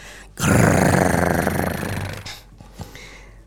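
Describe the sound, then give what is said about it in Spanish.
A human voice imitates a bear cub grunting: one long, rough, throaty growl-grunt lasting about two seconds, loud, followed by a brief softer snort. “Escondido bajo las sábanas, con el hocico arrugado y la mirada vidriosa, el pequeño oso Elías gruñía, gruñía y gruñía.”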